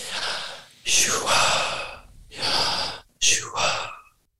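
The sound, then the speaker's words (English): Loud breathing: a few deep, airy breaths drawn in and pushed out in quick succession, breathy and hissing, with brief pauses between them and no talking. “But I was I learned recently in life that if you breathe in”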